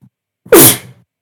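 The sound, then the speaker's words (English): A single loud sneeze from someone with a mild case of COVID bursts out sharply after a brief silence, with a breathy, hissing release that quickly fades away. No talking accompanies it. “Bless you.”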